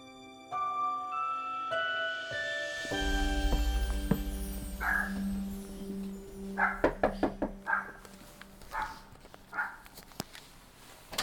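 Several sharp knocks on a house door, fairly close and loud, come in an uneven sequence after a sustained tonal drone fades out.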